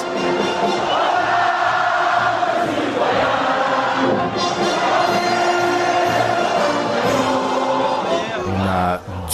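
A large crowd on a beach facing the Palais des Festivals sings the French national anthem, La Marseillaise, loudly together at the end of a music set, many voices merging into a sustained, slightly ragged chorus that fills the space steadily from start to finish.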